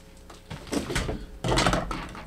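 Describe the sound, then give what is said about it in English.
A door being closed, with a scraping swing followed by a solid thud and rattle, in two quick bursts of movement with no one talking. “Sorry, the dog's making noise. Got to close the door.”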